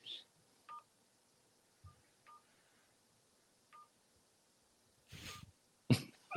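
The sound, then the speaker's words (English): Three short, quiet keypad tones beep at uneven intervals as phone buttons are pressed while trying to connect a call, followed by a couple of sharp, noisy bursts like a cough near the end. “But I'm pushing the buttons and nothing's happening.”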